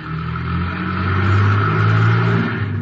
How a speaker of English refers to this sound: I'm going to circle around to the alley and wait. There's a car coming out of the alley.